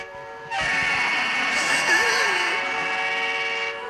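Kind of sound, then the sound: vehicle, train whistle blowing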